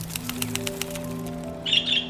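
A sparrow's wings flap in a quick burst of soft fluttering beats, then bright, high-pitched chirps ring out briefly over a low, steady hum. No one speaks.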